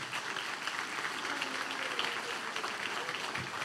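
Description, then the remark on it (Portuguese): An audience at a church service applauding for Jesus, a steady, dense wash of many hands clapping that fills the whole stretch without pause, moderately loud and slightly roomy. “Você pode assentar-se, irmão você que está na sua casa online e agora você que assentou aqui, vamos dar uma linda salva de palmas a Jesus.”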